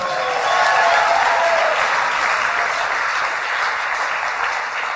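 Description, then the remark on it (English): During a sermon, a large crowd gives the Lord a shout of praise, applauding loudly and steadily for several seconds. Cheering voices rise briefly at the start before settling into a dense, continuous wash of clapping. “Give the Lord a shout of praise, somebody.”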